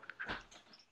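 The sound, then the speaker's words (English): A pet dog gives a couple of quick, faint barks, the second one a little fuller, then the sound trails off into quiet background noise. “My dog's barking”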